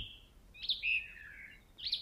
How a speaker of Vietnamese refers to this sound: tiếng chim hót tiếng côn trùng kêu âm thanh gầm rú của các loài động vật trong bóng đêm